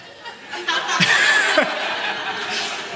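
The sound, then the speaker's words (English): A voice gives a short, high rooster-crow imitation that rises and bends downward, while chuckles and background chatter surround it. “Somebody give me a good rooster.”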